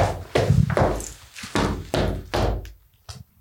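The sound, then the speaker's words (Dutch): A series of heavy, dull thuds as a foot stamps repeatedly on the solid floor of the cellar of the old academy in Franeker, about five or six loud impacts in an uneven rhythm, with a faint room echo and a couple of softer knocks at the end. “Het is een heel zwaar dof geluid.”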